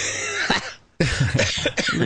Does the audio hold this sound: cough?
yes